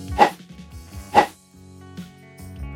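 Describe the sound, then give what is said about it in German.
A plastic champagne glass swung through the air twice with its opening facing away from the body, about a second apart, each quick whoosh carrying a faint hollow whistling tone as air enters and circulates in the glass, with a soft tonal background beneath. “Hier hört man richtig, wie die Luft in das Glas hineingeht, zirkuliert und fast schon einen richtigen Ton erzeugt.”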